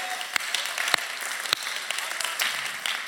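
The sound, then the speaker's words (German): A crowd applauds one another steadily, dense overlapping clapping, with a few sharper, louder claps standing out. “Und ähm, hey, vielleicht können wir an den anderen Standort, vielleicht können wir uns alle gegenseitig nochmal eben Applaus geben, oder?”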